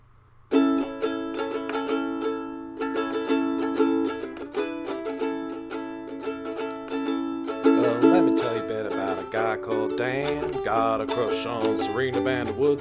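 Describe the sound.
A short, improvised Gossip Girl jingle played on a bright keyboard or synth: sustained chords punctuated by rhythmic stabs, then a wavering, sliding melodic line toward the end, loud with no talking.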